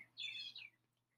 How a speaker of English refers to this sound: You might hear some birds in the background because I'm recording in my kitchen and I have the windows open